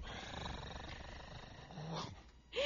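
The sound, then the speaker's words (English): A person imitates a cat's purr with a low, rough, continuous rumble lasting a couple of seconds, ending in a brief louder vocal burst. “Here we go. I'm going to do a purr for you.”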